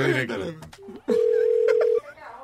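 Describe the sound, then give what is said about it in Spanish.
A voice talks briefly, then a short phone tone blips, followed by a loud, steady electronic beep lasting about a second, as a prank phone call is placed to a friend. “Ahora, ahora está llamando entonces, eh, … llamó al muchacho, el amigo de él.”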